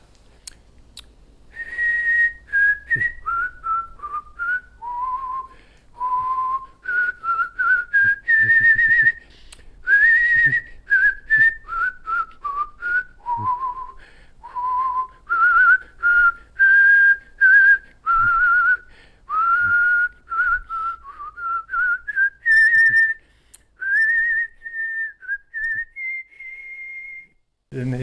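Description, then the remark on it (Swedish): A man whistles the Åland folk song Visa till Åland alone, a clear, steady tune in the upper register with smoothly gliding notes and short phrases separated by brief breaths, continuing for nearly half a minute. “Det var, det var någon som tipsade mig om att, att du visslar så vackert där i, bland Mariehamnshusen så alltså att folk öppnade, började öppna dörren och, och undra vad det var för fin musik.”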